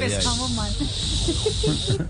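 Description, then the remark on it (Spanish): A person imitates a male snake's hiss to a female snake while mating: a steady sibilant hiss held for about two seconds, with faint voiced murmuring blended in beneath it. “Bueno, la siguiente frase la decía el culebro a la culebra haciendo el amor.”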